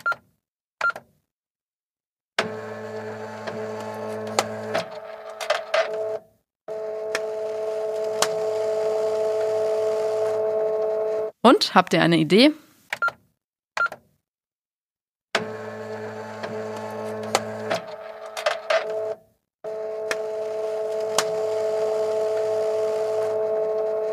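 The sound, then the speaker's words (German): A fax machine dials with a quick run of touch tones, then screeches and warbles through handshake tones and steady, buzzing transmission, cycling twice with short pauses; a voice briefly asks a question near the end. “Bei dem Geräusch könnte man fast nostalgisch werden und sehr wahrscheinlich habt ihr es auch schon erraten. Es handelt sich um das Fax.”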